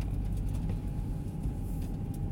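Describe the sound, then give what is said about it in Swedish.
A steady low rumble fills the space, the muffled hum inside a car where a person sits recording, with faint brief chirps from outside and no one speaking. “Jag spelar in när jag sitter i bilen faktiskt.”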